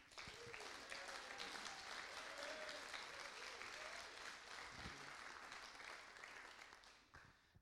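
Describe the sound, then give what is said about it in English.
A church audience at a morning service claps steadily for several seconds for invited guests about to share, a dense, even wash of applause that holds its level and then thins out toward the end, with faint voices murmuring underneath. “And uh, so, why don't you just give them a round of applause?”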